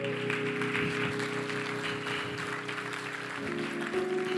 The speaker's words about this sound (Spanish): Si vas a aplaudir, aplaude.